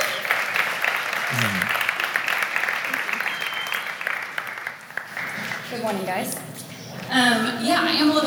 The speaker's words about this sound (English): So will you just welcome her with me with a big round of applause?